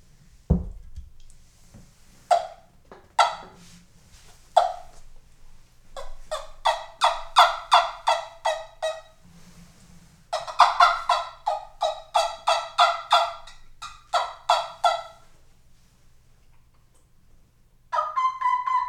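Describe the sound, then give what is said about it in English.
A handheld turkey call, played indoors, imitates a turkey, giving scattered single yelps, then long rapid runs of sharp, rattling gobble-like notes, loud, with a brief pause before a final burst. “of all the turkey calls, this this is probably one of the hardest to learn.”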